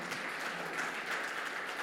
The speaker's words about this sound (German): Kann ich meinen Amen hören? Kann ich meinen Applaus für unseren Jesus hören,